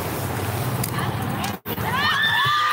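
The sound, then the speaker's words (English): Amid a dense, noisy street crowd during a street fight, high-pitched screams from women break out after a brief gap, shrill, wavering and loud over the steady background din. “Now women are screaming. You hear this?”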